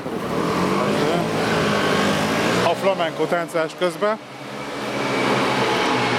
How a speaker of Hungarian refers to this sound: Uh, a robogók!